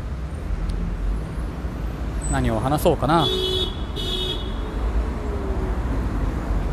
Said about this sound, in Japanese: 相変わらず車はね、この辺もかなりリデベ駅周辺はね車渋滞するゾーンなのでまあさすが首都といったところでしょうかさすがに渋滞は今日もしてますね